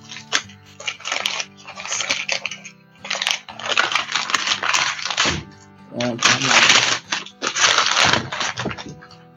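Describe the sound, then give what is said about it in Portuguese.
Paper crinkles and tears in repeated bursts as a package wrapped in lots of paper is unwrapped, fairly loud, with brief pauses between rustling handfuls. “Meu Deus, ele colocou mil papéis.”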